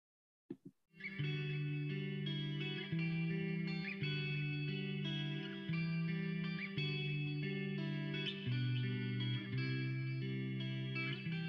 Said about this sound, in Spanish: Y nos vamos con el siguiente tema